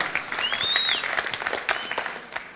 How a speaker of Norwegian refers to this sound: Du kan godt gi Jesus en applaus på det der.